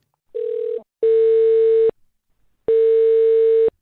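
A telephone ringback tone on an outgoing call to the local branch of the Social Democrats (SPD) in Lower Saxony (Niedersachsen), Germany: a short faint burst, then two long steady tones separated by a pause of silence, clear with no talking.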